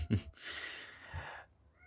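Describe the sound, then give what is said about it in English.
A male cat lets out a single drawn-out, raspy meow lasting about a second, sounding irritated. It comes through fairly quietly, preceded by a soft low thump, with no one talking. “Uh, excuse my cat. He's he's annoyed.”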